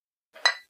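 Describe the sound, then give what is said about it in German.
A single bright clink of glasses touching in a toast, brief, with a short ringing tail and a faint rustle before and after. No one speaks. “Prost. Ich darf trinken.”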